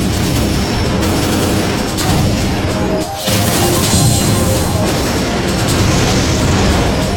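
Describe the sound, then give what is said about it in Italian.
Heavy, continuous booming and crashing blasts of a ship's main cannons firing armor-piercing shells at an enemy ship, loud, with a dense rumbling low end and a brief dip in the middle before the barrage resumes. “I primi colpi sono andati a segno, il nemico mantiene la rotta.”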